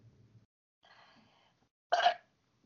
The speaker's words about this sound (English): Uh, sorry, that was a really really wet gross burp.